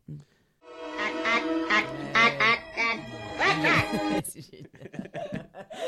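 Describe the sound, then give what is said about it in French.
A voice imitates a little Martian's squawk: a string of nasal, quacking, duck-like bursts rising and falling in pitch for about four seconds, loud, followed by softer breathy sounds and faint laughter. “Est-ce que vous voulez entendre le bruit d'un petit martien Allez.”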